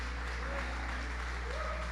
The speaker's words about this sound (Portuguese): Que salva de palmas a Deus aí. dá um glória a Deus.